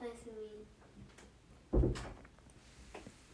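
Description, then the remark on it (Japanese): A door opens quietly as two family members, one of them the speaker's second son, look in, with a soft low thud and brief rattle midway through, after a faint voice trails off at the start; otherwise hushed. “今、えー、静かにドアが開いてですね”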